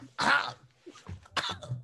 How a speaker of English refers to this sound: As you're speaking, all of a sudden you start choking violently as you swallow the bug.